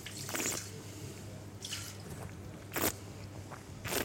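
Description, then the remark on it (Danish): A glass of wine is drunk down and emptied in a few wet gulps and slurps, spaced unevenly over several seconds, with a faint low hum in the background and no talking. “Så må vi hellere tømme glasset.”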